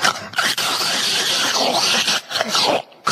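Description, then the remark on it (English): Someone makes a sustained wet, hissing slurp with their mouth, imitating a dentist's suction tool, fairly loud for about three seconds with brief breaks. “sounds like that suction that the dentist uses.”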